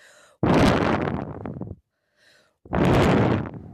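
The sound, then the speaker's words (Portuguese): A voice imitates the wolf blowing hard at the little pig's straw house in the Three Little Pigs story: two long, loud, breathy whooshes, each starting abruptly and trailing off, separated by a soft intake of breath. “Vendo que o porquinho não abriria a porta, o lobo começou a soprar.”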